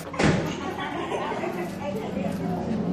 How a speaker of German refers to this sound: Um durch diese Tür zu gelangen, muss man die Begrüßung auf Tamaschek sagen. Das ist die Sprache der Tuareg und das heißt Al-Haras. Und wenn man das richtig sagt, dann geht die Tür auf.